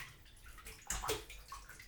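Soft water sloshing and splashing, made to show how quiet sounds come out on a Sony HDMV1: a brief quiet swirl that swells into a louder wet slosh midway, then settles into faint trickling and dripping with no voices.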